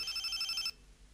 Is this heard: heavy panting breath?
no